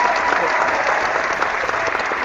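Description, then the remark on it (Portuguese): A crowd claps steadily, a dense wash of many hands applauding together at an even, fairly loud level throughout, with a faint murmur of voices mixed in. “As palmas foram porque eu não gaguejei em nenhum momento?”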